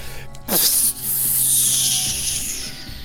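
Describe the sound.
A voice imitates air escaping a punctured balloon, standing for an arrow piercing a gelatinous cube: one loud, breathy hiss that starts abruptly and holds steady for a couple of seconds before easing off slightly.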